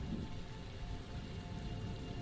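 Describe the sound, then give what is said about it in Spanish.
Steady, gentle rain patters continuously over a low, rolling rumble in the background, like thunder far off. No voices, just an even wash of rainfall throughout. “Llovía, apenas un poco, pero a lo lejos se escuchaban los truenos de una tormenta que nunca llegó.”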